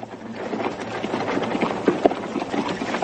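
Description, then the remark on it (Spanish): Horse hooves clop in an uneven, busy rhythm over a steady rumbling bed of noise as horse-drawn wagons carrying crude cages roll along, with a few sharper knocks standing out near the end. “Otros también muertos están amontonados en el suelo y los vivos están encerrados en toscas jaulas colocadas sobre carromatos tirados por caballos.”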